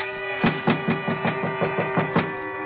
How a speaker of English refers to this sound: When I heard his footsteps on the stairs leading to our floor